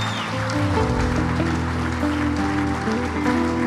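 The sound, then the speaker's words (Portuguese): An audience applauds Jesus, a steady, dense wash of many hands clapping at an even level for several seconds, with sustained musical tones holding underneath. “Dá um lindo aplauso a Jesus.”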